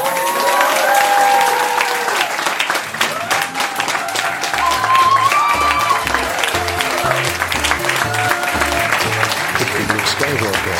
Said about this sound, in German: And now, Ladies, Nerds und Gentlemen, stellt die Sitze gerade, schaltet die Lauschlappen auf Empfang und schlagt kräftig die Batschehändchen zusammen.